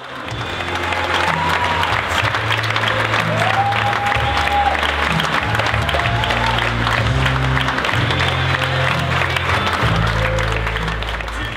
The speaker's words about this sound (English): I'll add some snaps and claps in post.